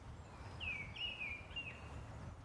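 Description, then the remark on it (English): A male mistle thrush sings one short, fluting phrase of a few slurred whistled notes, soft, over a steady low woodland hiss and rumble, by a small, dark pool in Goytre House Wood, Gwent, on a crisp March mid-morning. “we've paused by a small, dark pool to listen to the wistful song of a male mistle thrush.”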